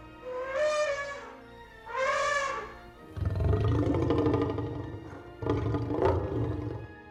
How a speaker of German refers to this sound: Ich weiß zum Beispiel, dass es bei dem T-Rex in Jurassic Park Laute von Elefanten und von Löwen sind, die irgendwie kombiniert worden sind.